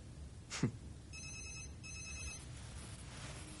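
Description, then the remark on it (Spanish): A telephone rings in two electronic bursts, each a bright, trilling tone repeated rapidly, following a brief sharp sound at the start. No one speaks. “Coge el teléfono.”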